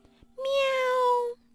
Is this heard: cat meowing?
yes